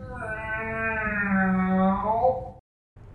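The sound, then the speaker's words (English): A person imitates a cat with one long, drawn-out, wavering meow, loud, lasting a couple of seconds before cutting off, followed by a brief moment of quiet background. “Oh, Christ, it's the cat thing again.”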